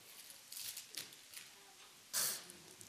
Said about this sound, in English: We, that was cute. Those were intense sneezes.